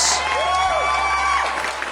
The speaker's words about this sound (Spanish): Eh, ya estamos llegando al final de este cuarto capítulo de este maravilloso, precioso, amoroso programa que se llama Patrulla Pelícano. Un aplauso, por favor, chiquillos